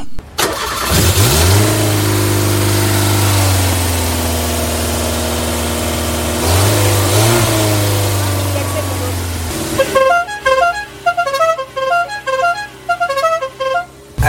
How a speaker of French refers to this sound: Il nous a proposé d'aller faire un tour dans son bolide, la bien nommée 4L Savane.